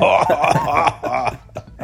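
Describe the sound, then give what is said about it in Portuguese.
Loud bursts of raspy, hoarse coughing, several rough throaty hacks in quick succession with a gravelly, smoker-like rasp, then trailing into a few shorter, quieter coughs. “Eu tô com a minha tosse aqui, mas eu tô super bem, tô super de boa.”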